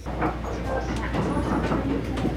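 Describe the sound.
Steady low rumble of a Tokyo-bound limited express train departing Izu-Kogen Station in Japan, with a constant deep hum and faint rattling from the carriage. Indistinct voices murmur faintly underneath.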